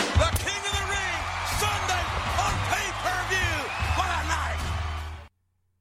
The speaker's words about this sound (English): Okay, so what you heard there was The Rock running into the ring and nailing The Undertaker with a rock bottom, resulting in a disqualification and enabling Taker to keep his WWF title.